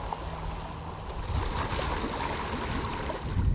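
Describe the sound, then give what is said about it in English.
A boat glides steadily through the reed-filled marshlands in summer heat, with continuous splashing and lapping against the hull and a low engine-like hum underneath, even throughout, no voices. “Jasim al Asadi and Abu Haidar take a boat ride through the reed filled marshlands, past the water buffalo cooling off in the summer's heat.”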